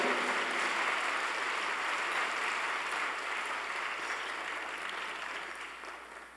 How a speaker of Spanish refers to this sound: Dale un aplauso al Señor porque Él es bueno, grande.